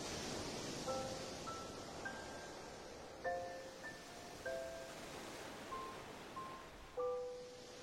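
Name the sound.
sea waves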